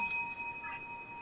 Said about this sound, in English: Lakeisha gets a bell. Uh, John gets a bell.